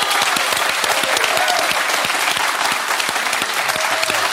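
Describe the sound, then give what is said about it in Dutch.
Sustained studio audience applause for a guest on a show, a dense wash of many hands clapping at a steady loud level for several seconds, with a faint murmur of voices mixed in. “Balsem voor je ziel, dit applaus.”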